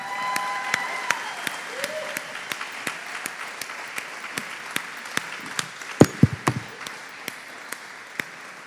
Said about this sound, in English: So, um, man, thank you guys so much. Thank you so much. Give them a round of applause.